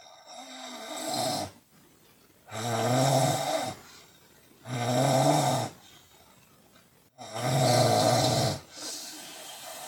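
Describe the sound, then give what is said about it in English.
Loud, rasping snores from a person sleeping in an old-fashioned trailer repeat in a steady rhythm, four long rumbling breaths about two seconds each, separated by short quiet gaps, with no talking. “Caitlin recorded my snoring”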